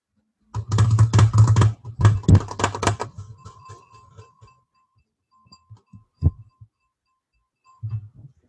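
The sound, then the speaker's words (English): Rapid clicking of long fingernails tapping a hard surface in quick flurries for a few seconds, then slowing to a handful of scattered taps with one sharper knock, no talking. “Sometimes I just grow my nails so I can do that.”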